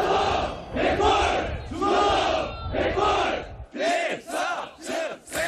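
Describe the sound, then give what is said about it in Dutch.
A group of South Korean soldiers training in the city of Non-Sam, shouting loudly in unison, a run of rhythmic, forceful chanted bursts, the later ones shorter and sharper, with no other talk. “En hier hoort u Zuid-Koreaanse soldaten trainen.”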